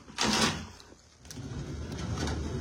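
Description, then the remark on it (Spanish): A chair being moved into place for someone to sit on: a quick, loud scrape, a brief pause, then a longer, lower rumbling drag across the floor. Nobody talks. “Ay, aquí tengo una silla.”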